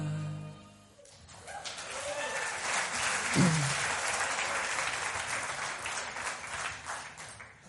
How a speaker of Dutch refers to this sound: Wat kan je je voorstellen, zei je? Ik kan me dat vertwijfelde klapje, dat applaus, kan ik me voorstellen. Ja, volgens mij zijn jullie een beetje geschrokken.